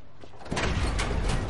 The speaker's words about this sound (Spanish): Se detiene frente al portón de una nave industrial y lo abre.